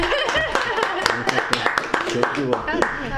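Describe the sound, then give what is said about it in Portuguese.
Scattered audience applause, a loose run of sharp irregular claps rather than a full ovation, heard under an ongoing speaking voice that stays prominent throughout. “Ganhamos uma, de Londrina, uma salva de palmas né? para ah. Maringá.”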